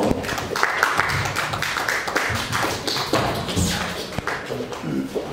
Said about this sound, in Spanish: el, Círculo este, de Hermenéutica y Ciencias de Estudios y Sociales, al cual lo, recibimos con fuerte aplausos por favor.